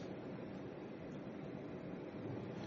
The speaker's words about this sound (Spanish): Escucha el estruendo del mar que resuena y retumba al estrellarse entre las olas, entre las rocas.